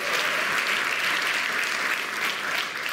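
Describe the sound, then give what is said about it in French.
A crowd applauds for Jesus steadily and loudly, the dense patter of many hands clapping without pause from start to finish. No voices stand out. “Jésus, on peut applaudir plus fort que ça, mes amis.”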